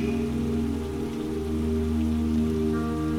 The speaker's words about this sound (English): You feel very grateful for the rain showering you down with this peaceful relaxation.